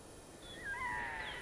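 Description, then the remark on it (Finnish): A red-throated loon gives a drawn-out, wailing call with sliding pitch, moderately loud over a faint hiss of background noise, with no voices. “Ääniä riittää kaakatuksesta korinaan, karkeaan möykkään ja valittavaan uikutukseen.”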